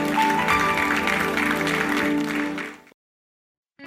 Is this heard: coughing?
no